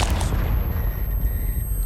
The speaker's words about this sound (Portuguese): Uma explosão ecoa pela sala e pelo corredor inteiro.